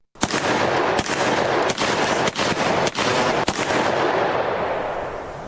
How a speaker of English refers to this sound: Where's my? Don't I have a gun sound drop? I think I do.